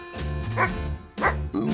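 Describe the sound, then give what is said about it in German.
A dog, Baron von Wuffens, barks several times in quick, uneven bursts, fairly loud, with brief pauses between the woofs and no other sounds around it. “Immerhin war er Baron von Wuffens, ein Hund wie kein anderer.”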